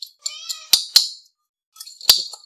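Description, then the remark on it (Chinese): Three sharp metallic clinks of a spoon striking a can of cat food while a cat is being fed, two in quick succession and one after a pause, mixed with high, plaintive cat meows. No one speaks. “我现在要喂猫，嗯，给它一点猫罐头，你会听到，呵呵，你会听到猫罐头。勺子碰到罐头的声音，”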